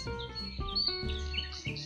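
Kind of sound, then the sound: bird, birds singing in trees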